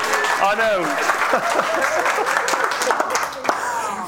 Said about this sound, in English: I thought I'd get more than a clap than that. Come on.